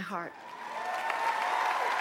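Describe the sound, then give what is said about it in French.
A large audience applauds steadily, a dense wash of clapping with scattered cheers and whistles, briefly led in by a voice at the very start; fans are in tears as a singer hands over an award. “Sous un tonnerre d'applaudissements et devant des fans en larmes,”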